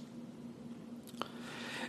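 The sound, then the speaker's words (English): Quiet chewing on crunchy honey barbecue twist snacks shaped like springs or coils, with one sharp crunch partway through over a soft, steady background hum; no one speaks. “These are like the honey barbecue twist. They look they look like springs or coils or something.”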